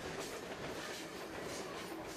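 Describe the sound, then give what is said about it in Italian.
A long iron ore freight train of 330 wagons rolls steadily along the nearly 900 km railway from the Carajás mine to the Atlantic port of São Luís, a dense continuous rumble and rattle of wagons with faint rhythmic clacking, with no voices. “Più di 30 treni, ognuno di 330 vagoni, a ritmo continuo percorrono i chilometri di ferrovia per portare le centinaia di tonnellate di ferro grezzo verso i porti sull'oceano,”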